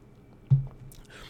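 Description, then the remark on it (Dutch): A single quick sip and swallow of water, a soft wet gulp, set against an otherwise quiet background with a faint hiss afterward. “Even een slokje water.”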